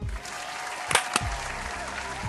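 A crowd applauds both finalists at the grand final of the drag competition Pasa la Draga, many hands clapping in a dense, steady patter, with a couple of sharper, louder claps standing out midway. No one speaks.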